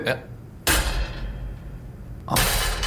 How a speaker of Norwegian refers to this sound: Eh, og, du, og så har jeg et lite spekel her, som, jeg, ja. som du hører jeg slår i, i dette metallbordet her. Okay. Hør nå.